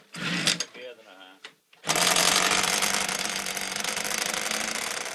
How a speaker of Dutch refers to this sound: Dit is het geluid van de 125cc-motor van de Asser motorcoureur Jan Ubels.